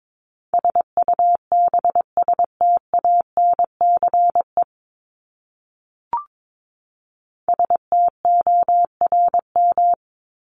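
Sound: morse code tones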